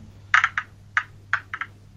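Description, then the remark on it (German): A die being shaken hard before a roll, giving a series of sharp, hard clicks that come in uneven little clusters, some paired, with short gaps between. No one talks. “Ich schüttel ganz, ganz doll.”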